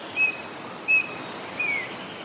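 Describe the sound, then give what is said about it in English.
Three thin, high whistled bird calls spaced about a second apart ring out over a steady bed of insect hum and soft background noise in a remote rainforest in the Andes Mountains of Colombia, with no voices present. “A few square miles of rainforest in the middle of the Andes Mountains in Colombia.”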